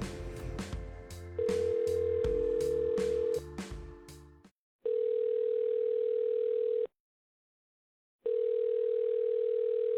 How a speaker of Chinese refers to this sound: 现在就让我们拨通他们的电话。